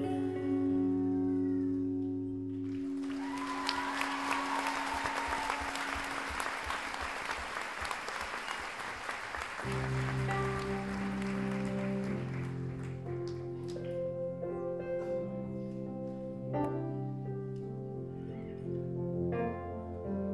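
A crowd breaks into loud, dense applause for the pianist that lasts several seconds over sustained low piano notes, then fades out as the piano carries on alone with chords.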